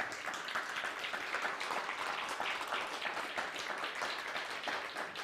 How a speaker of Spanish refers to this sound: Fuerte aplauso nuevamente, por favor, si es tan amable.